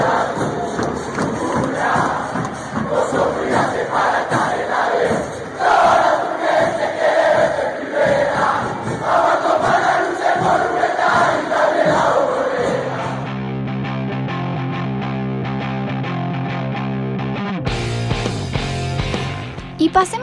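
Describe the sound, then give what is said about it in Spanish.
A huge stadium crowd of El Taladro football fans chants their own version of a song in unison, loud and echoing, for about thirteen seconds before giving way to a steadier instrumental passage with sustained tones. “Este tema lo tomó la gente del taladro e hizo su propia versión.”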